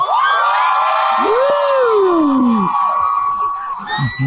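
A large concert crowd screams and cheers loudly and continuously, a dense wall of high-pitched shrieks, with one nearer voice letting out a long rising-and-falling whoop partway through.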